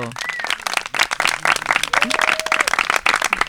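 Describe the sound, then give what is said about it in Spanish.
An audience welcoming a guest speaker breaks into sustained applause, a dense crackle of many hands clapping at steady loudness for several seconds, with a couple of faint whistles rising above it. “Por favor, denle un fuerte aplauso.”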